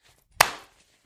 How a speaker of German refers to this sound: Ja, äh, uh, ja, läuft schon. Da 3, 2, 1, klatsch.